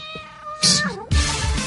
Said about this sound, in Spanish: Está cabreado. Alguna vez lo he pisado. Sí. Pobrecito mío. Por eso maulla, sí. porque te odia.